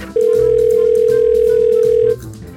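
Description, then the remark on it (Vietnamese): A telephone ringback tone sounds while a call goes through: one loud, steady electronic buzz lasting about two seconds, clear, with faint background music underneath. “bây giờ mình gọi bác tuấn công đi nhở cho bác ấy còn chuẩn bị”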